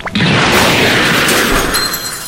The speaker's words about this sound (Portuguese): O barulho dos cacos de vidro nas janelas do ônibus continua sendo o único som naquele monte retorcido de metal. Os estalos continuam mesmo depois do impacto, mas não superam o barulho de uma explosão.